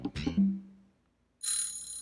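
An alarm clock rings: a single metallic clang fades out, then after a short silence a loud, bright, rattling ring bursts in and keeps going. No voices.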